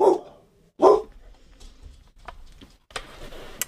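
Two loud, sharp dog barks ring out in quick succession, followed by quieter rustling and scattered background noise.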